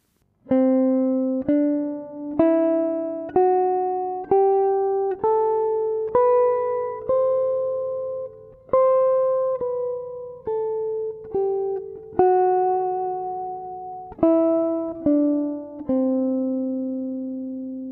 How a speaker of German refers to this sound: Das war auch eine C-Dur-Tonleiter, aber C-Dur mit einem Fis statt F drin. Das nennt man in der Fachsprache, du weißt es vielleicht schon, lydisch.